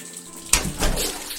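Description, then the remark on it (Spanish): Water pours steadily into a bathtub, a broad rushing splash that starts with a sharp onset and continues at a constant level with no voices. The tub is being filled to bathe a pet rabbit named Pompón. “la bañera ya está casi lista.”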